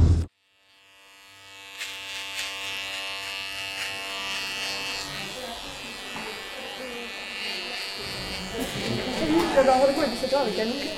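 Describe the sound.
Electric hair clippers buzz steadily after a brief silent start, a continuous droning hum that grows slightly louder and rougher toward the end, with faint voices mixed in underneath. The clippers are used during a haircut at the Frange Radicale hair salon.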